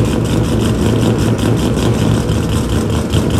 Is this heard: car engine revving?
yes